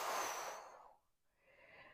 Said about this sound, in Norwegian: Og så, når man puster ut,